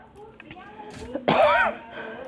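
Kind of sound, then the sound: human body sound, coughing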